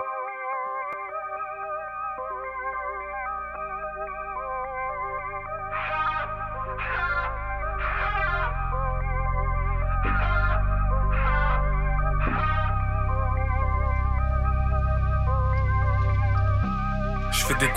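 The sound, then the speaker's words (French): A music track plays steadily, with sustained layered tones, echoing effects-heavy textures and recurring rhythmic bursts, growing fuller and louder after the first few seconds. “C'est un extrait des paroles du titre … de … que vous allez entendre.”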